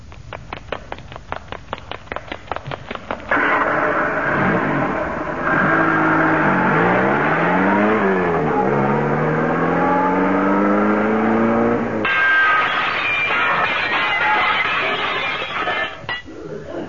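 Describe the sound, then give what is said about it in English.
Quick rhythmic footfalls patter for a few seconds as a Le Mans start is done, then racing car engines roar to life and rev loudly, pitches rising and falling as they pull away, with more engine noise trailing at the end. “That that was somebody doing a Le Mans start.”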